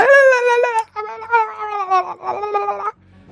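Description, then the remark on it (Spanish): A woman's high, wavering scream from a recording of a performance with a singer and another singer, played back slowed down, stretched into three long wailing bursts with warbling harmonics, loud and drawn-out, briefly breaking between them before fading off. “Ah, vale, porque lo han, acortado, o sea, la han hecho, lo han puesto despacio para que veáis cómo gritaba ella, ¿no?”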